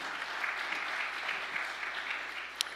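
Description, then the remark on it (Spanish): A crowd applauds loudly for the Lord, a dense, continuous wash of many hands clapping at once, holding an even, strong level for a few seconds with one sharper clap standing out near the end. “Del otro aplauso fuerte a Él.”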